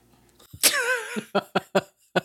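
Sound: dog panting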